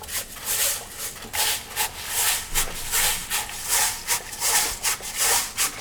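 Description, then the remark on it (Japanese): Rice grains being rubbed while washing, a steady rhythmic gritty scrubbing with about a dozen hissing strokes in quick succession, fairly loud, with no voices. “よく研いでで白くなったら出してでもこの状況で水張る前にもちょっとよく洗って、はい、水が張ってきたら時にもうすでにここでその研いだものの汚れが出てくるんで、うん、なるほどそう捨てるって感じです”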